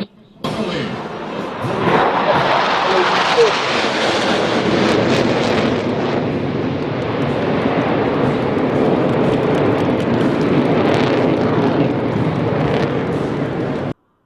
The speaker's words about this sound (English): that, that airplane was amazing. You know what that was?